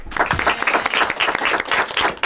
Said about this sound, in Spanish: Bueno, em, tenemos a otros, ¿qué? ¿20, 25? 24. 24 y antes 25. O sea que eh, estudiantes que se van a dar un aplauso a ellos mismos por estar aquí.